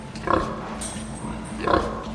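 Two short, nasal grunts from a domestic pig about a second and a half apart, over a low steady background rumble with no one speaking.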